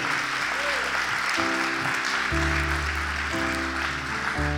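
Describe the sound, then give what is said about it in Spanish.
An audience applauds the king, God, in a dense, steady wash of clapping that holds for several seconds, while sustained keyboard chords shift underneath. “Vamos, dale fuerte ese aplauso al rey.”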